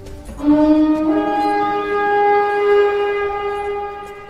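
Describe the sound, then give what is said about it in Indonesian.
A war horn blows one long, sustained note from a distance, its steady, brassy tone swelling slightly before slowly fading, with no voices present. “Dan ketika dikira semua harapan telah sirna, terdengarlah suara sangkakala perang dari kejauhan.”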